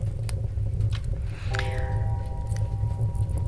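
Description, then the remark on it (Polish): A single resonant clock-bell strike rings out midway as a clock strikes the hour of 17:00, hanging in a sustained, slowly fading tone over a steady low rumble of background noise. “Hmm, zegar akurat wybija godzinę 17.”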